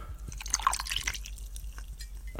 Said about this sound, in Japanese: ああいいんじゃないですかこの飲み飲み物を入れるだけでもねこのマイクは音がいいですね。はい。なかなかな、なかなかなサウンドが。